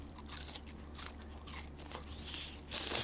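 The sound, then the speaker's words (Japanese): Crisp crunching as someone bites into crispy fried chicken (tatsuta-age, fried in a potato-starch coating), a run of brittle crackly bursts with a louder, denser crunch near the end, and no talking. “実に美味しいですねこれえサクサクというこのこの食感がたまらないのと噛んだ後のこのジューシーさ鶏肉から出てくるこの鶏の甘みがふわっと口の中に広がります”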